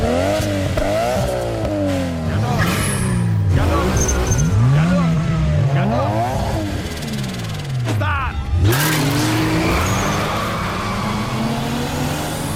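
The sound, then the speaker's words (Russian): A Vesta Sport sedan's engine and exhaust rev up repeatedly, pitch climbing through gear after gear with brief drops at each shift, loud throughout. “Здесь всегда слышны мотор и выхлоп”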